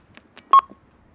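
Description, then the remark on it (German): A smart doorbell at the entrance gate of a family home, with a camera above the door and no keyed lock, gives a short electronic ring, one bright, steady mid-pitched beep that fades quickly, preceded by a few soft clicks and taps. No one speaks. “Dafür aber eine Kamera über der Tür und in die winke ich jetzt mal rein und klingel.”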